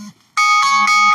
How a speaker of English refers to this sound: Yep. That's my alarm. Gotta go.